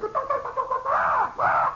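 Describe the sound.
A man's voice imitates a wild chicken from within a crowd wearing gas masks, starting with a wavering, clucking warble and rising into two loud, swooping squawks, high and strained, with no other sounds around it.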